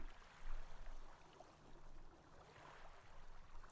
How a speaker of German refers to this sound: Stell dir vor, du blickst auf einen See. Die sanften Wellen plätschern ans Ufer, kommen und gehen.